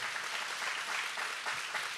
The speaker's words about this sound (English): That deserves a clap, y'all. Come on.